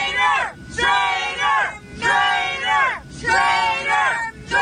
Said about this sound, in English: There you have people who were heckling Mitt Romney on the plane, calling him a traitor, a traitor, a traitor.